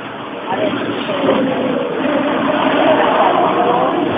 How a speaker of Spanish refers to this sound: Alcalde, tenemos un problema en, el audio. Si pudiéramos alejarnos un poco, el, evidentemente el tráfico se nota que es altísimo.